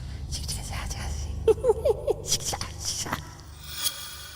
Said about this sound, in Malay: Dan sedang aku tekun menghadap laptop tu, dan secara tiba-tiba aku terdengar ada suatu suara budak-budak ataupun suara kanak-kanak berbisik sambil ketawa.